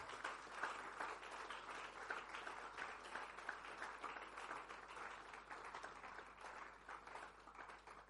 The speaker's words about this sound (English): stand to your feet let's close come on are you clapping for the presence of god in this place